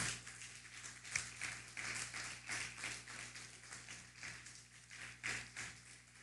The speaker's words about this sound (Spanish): Pues vamos a dar un fuerte aplauso a todas las naciones, ¿sí? En la cuenta de 3, 1, 2, 3, vamos a dar un fuerte aplauso. Bienvenidos.